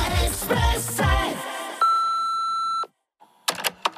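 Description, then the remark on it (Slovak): An answering machine beep: one steady, fairly high-pitched electronic tone lasting about a second, following the fading end of music, then a short silence before a voice starts speaking. “A hneď po počasí a najrýchlejšom dopravnom servise príde záznamník”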